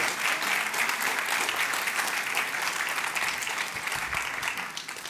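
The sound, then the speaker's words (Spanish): Loud, sustained applause from a large audience, given for the King of Kings (God), a dense wash of clapping that holds steady for about five seconds without any talking. “Dele ese fuerte aplauso al Rey Reyes.”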